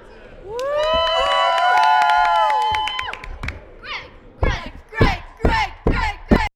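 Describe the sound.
A crowd whoops and cheers with high, overlapping voices for a few seconds, then the cheering fades into loud, scattered bursts of clapping and sharp percussive claps.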